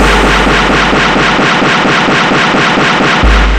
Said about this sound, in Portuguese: Vibrota na Francisco Nunes, é tiro pra caralho.